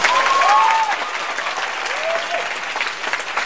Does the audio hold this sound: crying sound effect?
no